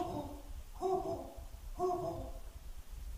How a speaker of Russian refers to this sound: Что это? Сова. Верно, сова.